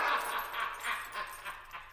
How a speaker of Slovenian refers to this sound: Smešalo se mu je! Od, od rožljanja ključev, ki mu vici za pasom!